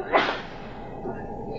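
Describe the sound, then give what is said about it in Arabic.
A single sharp, loud sneeze bursts out near the start, then fades into quiet with only a faint background murmur. “رحمك الله”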